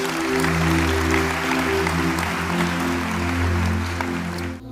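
A large crowd claps loudly and continuously, applauding the Lord, a dense, steady wash of applause over sustained low keyboard chords, cutting off abruptly at the end.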